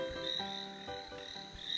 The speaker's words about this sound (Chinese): 池塘里住着许多青蛙，有些围在一起呱呱呱地开辩论会